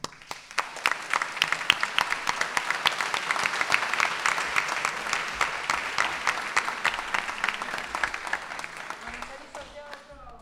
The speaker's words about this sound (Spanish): Sí, la aplaudimos, sí. Vale, vale, aplauso, vale.